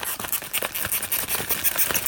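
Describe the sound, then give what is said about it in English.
A wax-coated paper bag of Six Gun chili spice mix is shaken steadily for about two seconds, giving a bright, crinkly rustle in quick, uneven bursts, fairly loud and with no talking. “I won't say it's a wax bag, but it is paper. It's kind of wax coated, sort of. And I'll shake it.”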